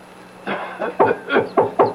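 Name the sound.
man coughing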